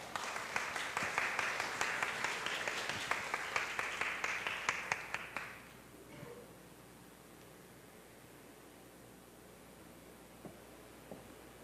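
An audience applauds with steady, dense clapping for about five seconds, then it fades out, leaving a quiet hush broken by a couple of faint isolated taps.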